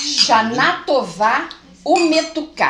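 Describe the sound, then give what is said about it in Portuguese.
Glasses clink together in a toast, bright ringing touches layered under voices chanting a short phrase, with a couple of light chimes near the start and end. “Vamos fazer um brinde?”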